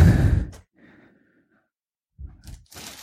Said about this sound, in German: So, jetzt muss ich hier mal gerade die Bierflasche aufmachen. Guck.